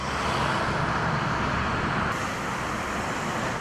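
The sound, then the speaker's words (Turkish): Continuous street traffic rumbles at a steady loudness at a bus stop in Ankara, a broad wash of engine and road noise from passing cars and buses, with no voices standing out. “Ankara'daki otobüs durağında sosyal mesafeye uymak çok zordu.”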